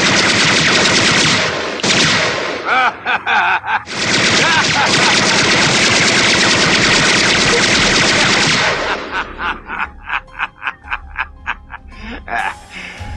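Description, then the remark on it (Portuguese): Loud, sustained machine-gun fire rattles nonstop for several seconds, then breaks into rapid, separate bursts of shots before fading out. “Olha, eu vou contar até 10 e você vai tirar esta cara feia, amarela e esse traseiro da minha frente antes que eu te meta um monte de balas.”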